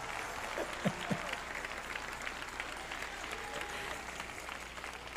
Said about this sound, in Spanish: Ay, la primera vez que me aplauden cuando digo eso, sonríase que el Señor le ama, qué bueno.